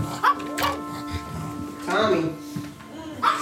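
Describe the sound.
A dog running around a two-story suburban house with a child gives a few short barks at irregular intervals, with people talking and a steady electrical hum underneath.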